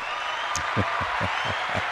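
An audience applauds in a steady, dense wash of clapping, with a regular low thumping pulse underneath, roughly four beats a second, sustained evenly for the whole moment.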